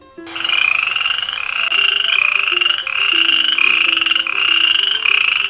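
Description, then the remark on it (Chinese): A steady, continuous chorus of frogs croaking, dense and rhythmic with layered trilling calls, loud throughout with no talking. “咦，这是谁在歌唱呢？我们赶紧来听听吧。 我是大明子，今天要讲的故事是是小青蛙和癞蛤蟆。”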